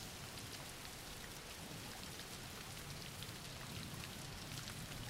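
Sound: rain falling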